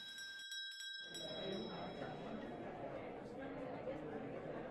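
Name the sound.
school bell ringing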